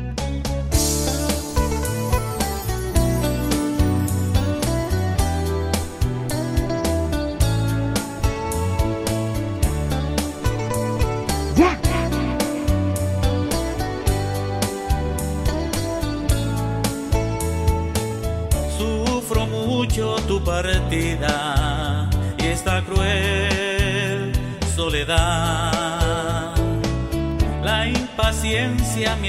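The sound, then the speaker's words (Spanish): A recorded song by a Nicaraguan band plays steadily at full volume, with a driving beat, bass, guitar including a guitar solo, and other layered instruments filling the whole stretch without any talking over it. “Escuchemos esta producción musical”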